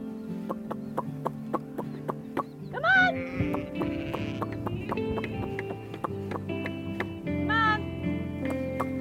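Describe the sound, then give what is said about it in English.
Two quavering sheep bleats, about five seconds apart, stand out over a busy background of steady rhythmic ticking and sustained droning tones. No one speaks. “They, they really are kind of dumb sheep.”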